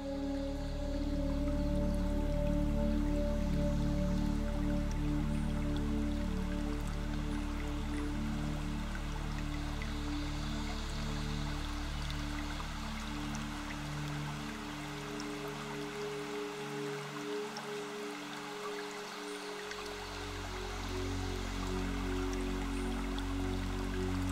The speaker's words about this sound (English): Start connecting with the sound of gently running water.